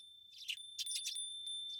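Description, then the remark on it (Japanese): Soft, bright tinkling from a wind chime in a few quick clusters, with a thin ringing tone lingering between strikes; quiet, with no voices. “風鈴の音を聞きながらあなたを見送る朝が好き”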